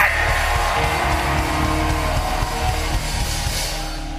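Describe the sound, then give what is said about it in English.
A large crowd screams and shouts continuously in a loud, dense roar of overlapping voices, sustained for several seconds with a low rumble underneath. “Come on, scream!”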